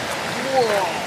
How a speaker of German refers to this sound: Das ist ja fast ein Wasserfall, Alter. Und so versteckt.